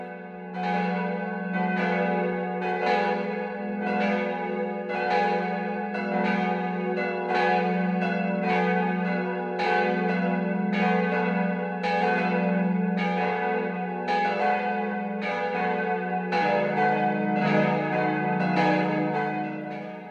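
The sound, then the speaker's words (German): A full peal of church bells from the Catholic parish church of St. Michael in Winzer, Swabia, rings steadily at midday (12 o'clock), several bells striking in overlapping rhythm with rich, sustained low hum and bright metallic overtones, loud and continuous with no talking. “Das Mittagsläuten kommt heute von der katholischen Pfarrkirche St. Michael im schwäbischen Winzer.”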